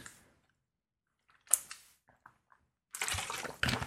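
Someone takes a drink: a sharp liquid splash, a few small clicks, then a longer watery rush of pouring or gulping. No one speaks.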